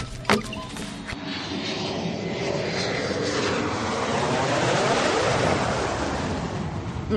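An airplane engine roars steadily overhead, its pitch sweeping downward as it passes by, loud and continuous for several seconds with no one talking.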